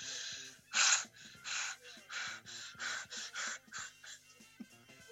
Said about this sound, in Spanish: Un gemido, uno. Déjame concentrarme. Me estoy inhibiendo.